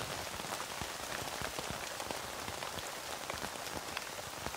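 Steady rain pattering on a tent, a dense hiss broken by countless quick, irregular drop taps at an even, fairly soft level, with no voices.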